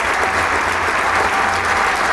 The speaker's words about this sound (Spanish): El público agradece con un aplauso estas sonadas suaves y melódicas.